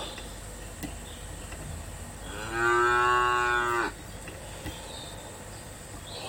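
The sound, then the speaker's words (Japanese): A single long cow moo sound effect rises and holds for about a second and a half, loud, over a faint background of insect-like hiss with no talking. “【朝活72日目】🐮”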